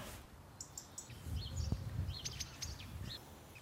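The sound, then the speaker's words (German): Small garden birds sitting in a birch and a hedge chirp and tweet in short, scattered bursts over a soft outdoor background, with a faint low rumble underneath; the calls are fairly quiet. “Ich mag die Vögel so gern.”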